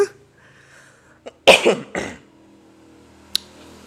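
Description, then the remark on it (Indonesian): A couple of loud, harsh coughs right up against the microphone, the first burst strongest and the second following half a second later, with a faint click before and after and no talking. “kayaknya kegedean deh ini mic ku deket sama aku lagi batuk jadi kalau kalian dengerin suara yang high frekuensi tadi yang bikin kalian kaget ya, ya maaf ya masih serak-serak nih ya”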